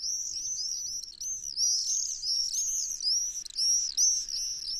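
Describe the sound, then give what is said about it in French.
Shrill, high-pitched screaming calls of common swifts, small all-black birds, in the blue sky of Provence at Arles, France, a continuous overlapping chorus of piercing trills rising and falling for several seconds, with no voices. “C'est un petit oiseau tout noir, parfois confondu avec l'hirondelle, qui vient déchirer le ciel bleu de Provence de son cri strident.”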